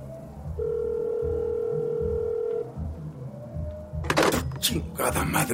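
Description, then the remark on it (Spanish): A steady telephone line tone hums for about two seconds, then a shorter higher beep follows, ending in loud clattering handset noises over a low background murmur, as a call is placed to the police from in front of a cantina in Chiconautla, State of Mexico. “Pinches teléfonos de mierda.”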